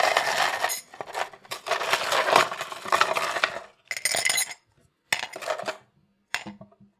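Ice cubes clatter into a cup in a few bright, clinking bursts, separated by short pauses, with a final small rattle as the last pieces settle. Fairly loud, with no talking.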